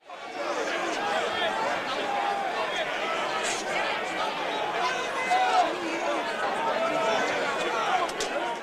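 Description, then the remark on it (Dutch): A dense crowd of traders on a stock exchange floor shouting buy and sell orders over one another as they try to make transactions at the best possible price, a steady loud roar of overlapping raised voices with sharper calls cutting through now and then. “die hevig gebarend en schreeuwend koop, verkopen”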